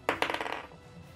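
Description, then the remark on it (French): A twenty-sided die clatters across a hard tabletop in a quick run of sharp clicks that bounce and fade over about half a second, fairly loud, with no voices; the die is rolled for an attack roll in a tabletop game. “Un des 20 plus ton modificateur.”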